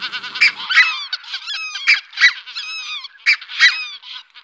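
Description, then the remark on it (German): A large flock of thousands of geese honks continuously, many overlapping calls forming a dense, busy chorus with louder individual honks standing out from the mass. “Der Ruf der Rotheitsgänse ist auch besonders, aber wenn man jetzt so tausende Gänse hört, dann fällt der Ruf natürlich eher nicht so auf.”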